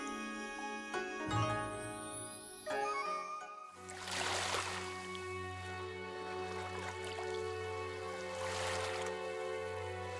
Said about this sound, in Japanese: 波音が聞こえますね会場がみるみるうちに大海原に変わりました